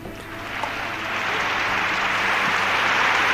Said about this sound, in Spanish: Aplausos.